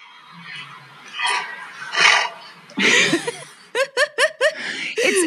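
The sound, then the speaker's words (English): An animal lets out deep, growly coughing sneezes: a few breathy, explosive bursts followed by a quick run of short, rough honking snorts, fairly loud. “it sounds like I mean it's so deep it sounds a bit growly, but you can tell it's it's this weird coughing sneeze.”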